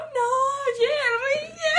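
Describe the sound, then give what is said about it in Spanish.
A voice imitates whimpering crying: a high, wavering whine that rises and falls continuously for a couple of seconds without pause. “Y yo llorando,”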